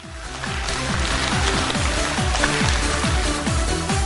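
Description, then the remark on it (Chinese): Steady, dense clapping from an audience fills the whole four seconds at an even loudness, with a repeating low rhythmic pattern, likely music, pulsing underneath. No one speaks. “听懂的，掌声在这鼓励下。”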